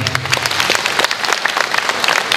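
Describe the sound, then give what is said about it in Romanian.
A crowd applauds steadily, a dense wash of many hands clapping at a loud, even level for a couple of seconds, with no voices standing out. “aplaudăm pentru că”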